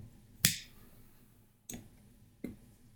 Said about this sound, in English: And you hear that click, that's me lighting a cigar.